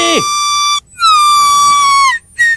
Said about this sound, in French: Maintenant, voici mon alarme. Tout est correct va sonner à toutes les trois secondes, à moins que quelque chose soit pas correct.